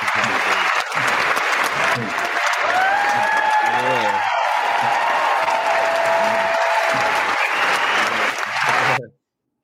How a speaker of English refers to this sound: give him a round of applause for that one right there, man. Well, he just dropped some realness right oh. there.